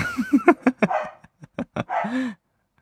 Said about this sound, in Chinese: 狗在叫啊！